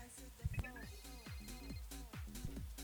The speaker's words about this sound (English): When you see your phone ringing with a withheld number, make sure you answer the phone